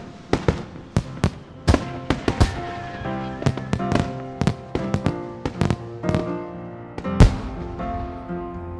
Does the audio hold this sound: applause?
no